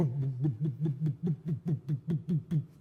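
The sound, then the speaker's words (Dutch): A voice imitates the sputtering diesel engine of a small boat with a steady run of low, voiced putt-putt pulses, about four per second, fairly loud, with no talking. “En die, en die dieselmotor die, die, die pruttelde en die”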